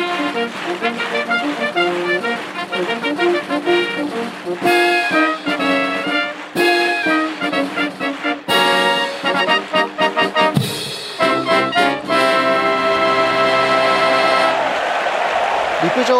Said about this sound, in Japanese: 自衛隊第3音楽隊の皆さんによります生演奏生ファンファーレに大きな拍手が沸きました阪神競馬場です